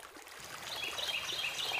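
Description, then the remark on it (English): Swallows chirp in quick, high bursts over the steady rush of a waterfall, the birdsong repeating in bright twittering phrases against the continuous water noise. “I remember seeing the most beautiful golondrinas or swallows flitting all around by the cascada, by the waterfall. They have such a nice chirp.”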